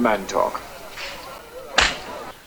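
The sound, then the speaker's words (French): A single hard, sharp slap on bare buttocks rings out loudly near the end, after a few brief murmured voice sounds, in a 1960s film scene at the edge of a swimming pool during a massage. “à la fin, ce qu'on entend, c'est une grosse claque ses fesses.”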